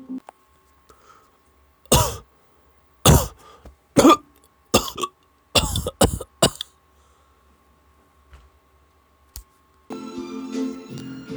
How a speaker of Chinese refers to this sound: 几次带着鲜血的咳嗽，在寂静空荡的擂台上显得格外清晰。